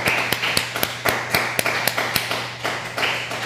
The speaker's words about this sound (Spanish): Denle un aplauso al Eterno por todo lo que está escondido. Pero un aplauso fuerte, que, que lo escucha, escuche la comunidad.